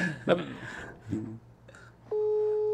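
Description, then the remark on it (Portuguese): A phone line ringing with no answer: a steady, loud electronic ring tone with two blended pitches sets in near the end and holds, following brief murmured voices and clatter. “Ele lá. não vai atender, não.”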